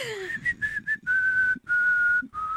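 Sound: person whistling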